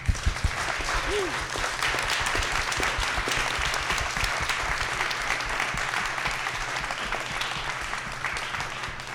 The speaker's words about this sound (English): Thank you so much. Let's get another round of applause for our panelists.